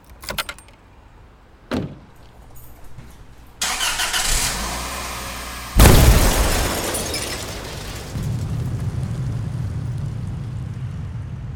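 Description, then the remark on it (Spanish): Keys jingle and a car door sounds, then a smoke bomb thrown from a neighbouring apartment hits with a sudden loud blast, shattering a car's windshield with a crash of breaking glass, followed by a fading hiss and a low engine rumble. No one speaks. “una bomba de humo arrojada desde un departamento contiguo a la casa, en venta, hizo añicos el parabrisa de uno de los autos.”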